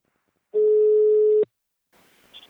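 A single loud telephone ringback tone, a steady electronic hum lasting about a second, cuts off with a click, followed by faint line noise as a call to the company Invacare connects.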